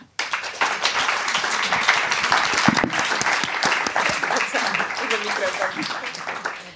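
A crowd applauds steadily, a dense rush of many hands clapping at an even, sustained level throughout, with no one speaking over it.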